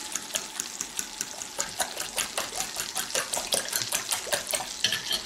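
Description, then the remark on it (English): About a tablespoon of water runs and splashes steadily into a bowl of six eggs for several seconds, added to make them light and fluffy, moderately loud, with a few light clinks of dishware mixed in and no talking. “I'm going to put about, I don't know, a tablespoon of water to make it light and fluffy.”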